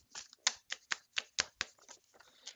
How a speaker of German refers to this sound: Ja, dann klopfe ich mal die Zettel.